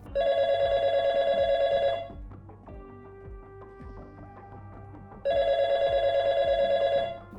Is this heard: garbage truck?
no